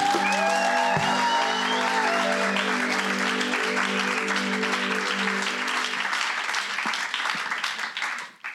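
An audience applauds steadily for several seconds, a dense wash of clapping layered over sustained musical tones that fade, the applause thinning out near the end.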